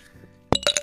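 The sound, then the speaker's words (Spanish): Ice cubes drop and clink against a glass as a fernet with cola is being prepared, in a quick cluster of bright knocks after a quiet, low hum. “Ahí está, y se trajo los hielos.”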